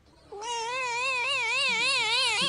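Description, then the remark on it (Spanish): A single long, distorted cat meow, loud, its pitch wobbling up and down for about two seconds with a harsh, buzzy edge and no voices around it. “El gato distorsionado.”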